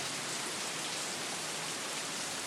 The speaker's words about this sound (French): L'orage gronde et la pluie s'abat désormais sur la plage de Quiberville.